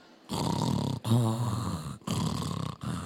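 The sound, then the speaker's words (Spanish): A person imitates snoring at midnight with a run of loud, rasping snorts, about four in a row with brief pauses between them. “¿Qué hacemos nosotros a medianoche? Roncamos.”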